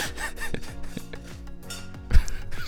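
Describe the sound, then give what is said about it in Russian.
Dishes clattering in a kitchen as a kettle is opened and tea is poured: a steady run of scraping and rubbing with several sharp clinks scattered through, one louder knock near the end, and no voices. “Гремит посуда, открывается чайник, наливается чаек.”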